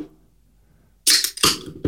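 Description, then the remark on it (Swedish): After about a second of near silence, a can is cracked open: a sharp metallic snap with a bright, loud fizzing hiss, followed by a second burst of hiss and a brief final pop. “jag hörde att du öppnade en burk.”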